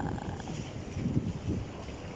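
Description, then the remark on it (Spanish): A steady, low rumbling wash of sea noise fills the background, with soft surging swells and a bit of wind; no one speaks. “Se escucha, el mar de fondo.”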